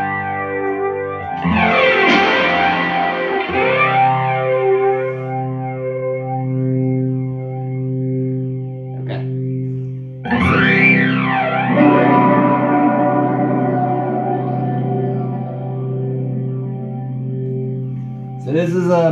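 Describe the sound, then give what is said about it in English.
A fiddle plugged into a Boss PH3 phase shifter pedal: long sustained bowed notes with a swirling, sweeping whoosh rising and falling through the tone, loud, with no talking. “Okay, so I just plugged up a Boss PH3 phase shifter, and this is my favorite setting on it.”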